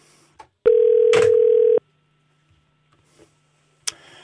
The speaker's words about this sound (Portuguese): está a chamar. Dois toques. Coisa é certa, ninguém tem os telefones desligados.